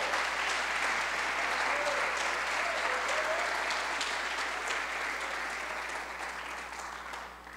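A church audience breaks into sustained applause for the Lord, a dense wash of many hands clapping steadily for several seconds before gradually tapering off at the end, with no talking over it.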